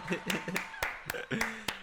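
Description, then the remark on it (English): A congratulations applause sound effect played for a graduation: a handful of sharp, crisp hand claps land at uneven intervals, about seven in under two seconds, with voices murmuring underneath between the claps. “give me a congratulations sound effect, please.”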